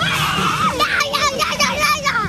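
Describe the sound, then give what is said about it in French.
A crowd of children shrieking and yelling together at a game at Parc Blandan, shouting louder to make a tree light up, loud and sustained for a couple of seconds, their high voices overlapping in a continuous excited din. “Il fallait euh, crier euh, plus fort pour que l'arbre grandisse de lumière.”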